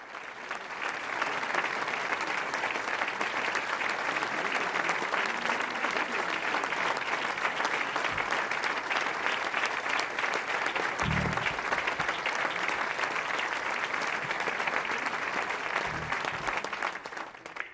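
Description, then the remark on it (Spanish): Steady, dense applause from a large crowd at a memorial tribute at the Centro Nacional de las Artes, attended by the head of the Executive and his cabinet; three minutes of applause in memory of the honoree, sustained at an even loudness with a few low thumps, no voices rising above the clapping. “El emotivo homenaje al que asistió el titular del Ejecutivo y los integrantes de su gabinete concluyó con tres minutos de aplausos en memoria de quien fue equiparado con Justo Sierra, Jaime Torres Bodet y José Vasconcelos.”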